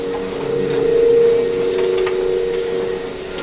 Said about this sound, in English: Whereas the escalator at U Street kind of sounded like Indian drone music.